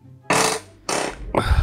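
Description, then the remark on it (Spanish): Three loud, buzzy, flatulent-sounding bursts from a chair creaking under shifting weight, each about a third of a second long with short gaps between. “Eso es la silla, e, weón.”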